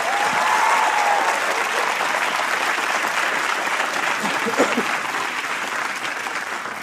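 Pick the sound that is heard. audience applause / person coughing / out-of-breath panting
audience applause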